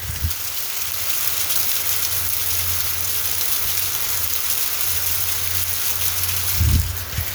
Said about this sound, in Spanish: En cambio, tú ahorita puedes incluso hasta grabar el agua, weón. Las partículas del agua que están aquí bajando por esta cadena de la lluvia, weón.